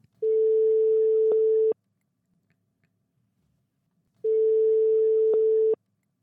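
A phone line's ringback tone sounds twice as a call is placed to a marital therapist: two steady, fairly loud beeps of about a second and a half each, separated by a long silent pause, with no voices.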